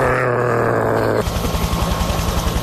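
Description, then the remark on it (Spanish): A voice imitates the buzzing flight of a female stag beetle (Lucanus cervus): a loud, low droning hum gives way to a rapid, rattling pulsed buzz, continuous for a couple of seconds. “Escuchar el este zumbido. en este caso de una hembra de, Lucanus cervus”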